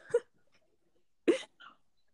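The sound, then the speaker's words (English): A man gives two short, sharp coughs about a second apart, followed by a fainter third one, clear against an otherwise quiet background with no talking. “Because he started coughing and back.”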